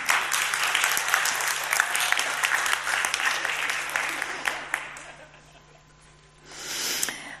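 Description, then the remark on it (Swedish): An audience applauds with a dense, steady clatter of many hands for about five seconds, then it fades out, followed by a short renewed burst of clapping near the end. “En applåd för dem, eller hur?”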